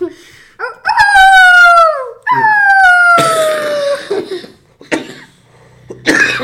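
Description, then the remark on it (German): A voice imitates two long, falling wolf howls, then breaks into a series of raspy coughs from a lingering cough, several harsh bursts spaced out over a few seconds, fairly loud. “habe ich gemerkt, oi, oi, mein Husten ist immer noch nicht gut.”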